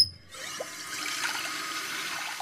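water running

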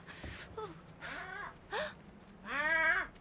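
crow cawing

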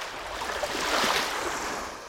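lake water lapping

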